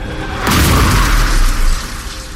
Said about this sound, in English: One minute I was driving down the highway, blasting music and humming under my breath. Then a red pickup hurtled over the center line and hit me head on.